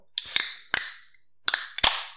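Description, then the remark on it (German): Moretti beer bottles, taken from a mini-bar fridge beside a desk, being popped open: four sharp, bright snaps in two quick pairs, each followed by a short hissing tail that fades out. No one speaks. “Und da hole ich mir jetzt noch ein zweites Moretti raus und lass es nochmal so kurz durch den Raum”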